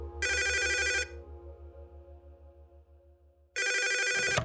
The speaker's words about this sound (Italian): Due ore dopo, uno squillo interrompe l'idillio tra l'Aroico e il D'Alessio. Dall'altro capo del telefono c'è una donna.